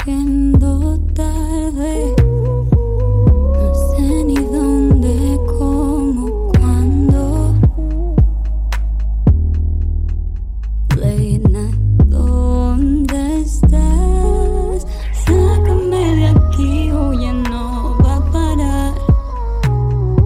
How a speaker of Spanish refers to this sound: Pues venga, vamos a escuchar su nuevo single y que podréis encontrar su videoclip en todas las plataformas.